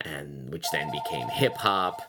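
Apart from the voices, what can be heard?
telephone ringing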